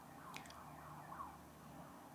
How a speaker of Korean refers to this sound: 경찰차 소린가요? 뭐지?